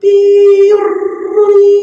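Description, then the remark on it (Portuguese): A voice mimics a dial-up modem: a loud, steady nasal tone that breaks into a buzzy, warbling garble, then settles back into the held tone, all in under two seconds. “É, eu ouço barulho de modem até hoje, meu amigo.”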